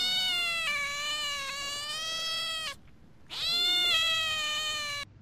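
A cat lets out two long, drawn-out meows, loud and close, with a short pause between them and a wavering pitch that bends at the end of each call.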